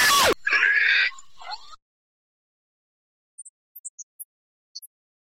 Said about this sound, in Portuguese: Olha, olha o porco. Olha o porco!